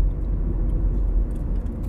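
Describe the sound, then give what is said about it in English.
Steady low engine rumble of a car driving, a continuous deep drone with faint road noise and no voices, holding even loudness throughout. “Wow, I think I'm driving in a very familiar area here.”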